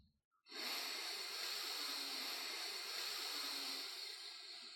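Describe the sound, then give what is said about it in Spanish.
A long, steady inhale through the nose during a guided breathing exercise, clearly audible, with a breathy hiss that lasts about four seconds after a brief pause at the start. “Tomamos aire por la nariz.”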